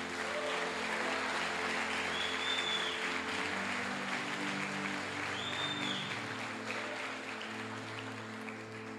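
An audience gives a strong round of applause to Jesus, applauding steadily for the full stretch, a dense wash of many hands clapping at an even loudness, with a sustained musical tone underneath and faint whistle-like rises now and then.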